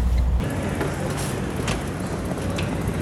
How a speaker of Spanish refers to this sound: Ese es el carrito y va solito por ahí en ese vidrio.